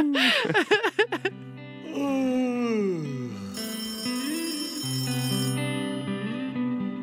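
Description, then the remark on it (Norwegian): An electronic phone ringtone plays on its own during an outgoing call to a best friend in Trøndelag, a bright melodic jingle with quick chirping notes at first, then sliding, sustained tones, fairly loud. “ringer sin beste venn.”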